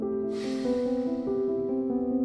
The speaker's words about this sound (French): Donnons-nous quelques instants, juste pour intégrer le temps d'une respiration. Inspire. Expire.